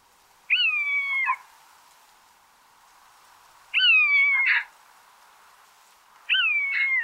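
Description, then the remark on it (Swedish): A common buzzard gives three drawn-out, mewing calls, each slightly descending and ending abruptly, spaced a few seconds apart and fairly clear against a faint background hiss. “Eh, och Ormvråken har ett, eh, liksom ett jamande läte skulle man kunna säga som eh, kan höras ganska ofta.”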